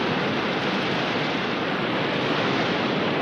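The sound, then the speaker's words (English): A steady, dense, loud roar of rushing water with no breaks or changes in intensity, from the cascading water features of the Water Gardens in downtown Fort Worth, Texas. “Um, the second day that I had this, I changed things up a little bit, and I went to the Water Gardens downtown”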